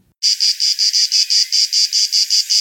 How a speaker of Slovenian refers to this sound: En je jesen oškržat, drugi je pa pritlikavi oškržat. In jesen oškržat se oglaša tako.